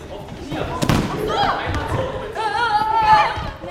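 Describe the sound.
Children in a gym hall in Spandau run, hop and balance over an obstacle course, climbing over vaulting boxes and rolling over thick blue mats: irregular dull thumps and footfalls throughout, mixed with high children's voices calling and chattering over a steady background hubbub.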